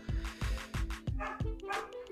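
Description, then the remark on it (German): The speaker's own dogs bark repeatedly in the background in quick, uneven bursts, about five or six sharp barks mixed with yips, with a faint trace of voice underneath. “Jawohl, meine Hunde meckern auch schon im Hintergrund.”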